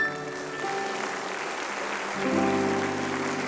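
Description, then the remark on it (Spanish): An audience applauds the Lord with a dense, steady wash of clapping, no voices, while sustained musical tones hum underneath and swell slightly louder toward the end. “Puedes dar un aplauso al Señor.”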